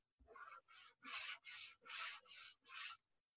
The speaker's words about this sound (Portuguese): Sou eu raspando no armário para fingir, né?